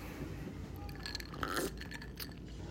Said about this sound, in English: I'm gonna take a sip at the top of the motherfucking podcast.